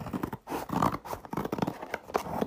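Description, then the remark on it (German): Scissors snipping and crunching through stiff packaging as a gift parcel is cut open, a run of short rasping cuts and crinkles in an uneven rhythm, with no talking. “Ich habe extra eine Schere geholt”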